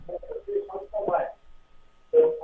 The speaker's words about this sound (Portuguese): Baixa o rádio, porque tá dando, tá dando eco. Ah, tá, desculpa. Eu tô vendo você pela TV e conversando com você. Sim, sim, baixa lá o volume da TV.